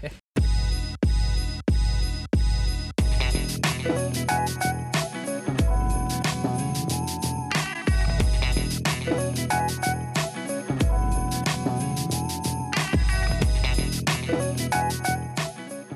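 Loud, upbeat music plays continuously, opening with several punchy, evenly spaced hits before settling into a dense, steady groove with bright chiming tones and a driving beat throughout.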